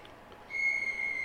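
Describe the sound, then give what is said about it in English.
A pet bird named Darth Birdie whistles one long, steady, high-pitched note that begins partway through and holds unbroken to the end, clear against quiet surroundings. “You hear that crap? I'm sure you do actually.”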